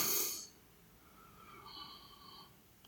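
An airy breath, one of three long breaths taken in a relaxed, comfortable position, rushes in loudly at first, then fades into a quieter, drawn-out flow of air with a faint nasal whistle, heard alone without talking.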